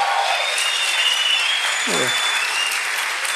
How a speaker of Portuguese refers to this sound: Vocês aplaudem porque não é com vocês, né?